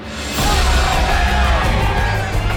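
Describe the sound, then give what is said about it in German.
A crowd erupts in loud, sustained cheering and yelling as a boy pulls the sword from the stone and anvil, a dense wall of excited voices that swells quickly after a brief quiet start and holds steady throughout. “Die Menge explodierte vor Aufregung.”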